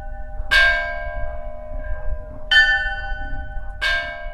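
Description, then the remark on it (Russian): A church bell in the village of Pasiene tolls three times at a slow, uneven pace, calling worshippers to a church service, each strike ringing out bright and resonant before decaying, over a low rumbling background with no voices. “И почти 400 летия верующих на службу в храм зазывает звон колокола.”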